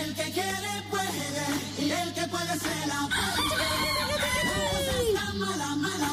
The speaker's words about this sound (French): oui, un coq.